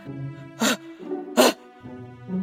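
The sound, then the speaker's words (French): Two sharp, breathy sneezes burst out about a second apart, fairly loud, with short voiced hums between them, like a voice acting out the exaggerated sneezes of the dwarf Atchoum, who never stops sneezing. “Il ne s'arrêtait jamais d'éternuer.”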